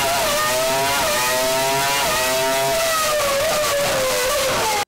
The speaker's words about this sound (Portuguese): Ou seja, se você sonhava com o retorno aí dos motores V10 e aquele barulho maravilhoso